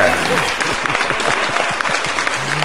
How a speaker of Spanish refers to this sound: aplausos para Mari Spender.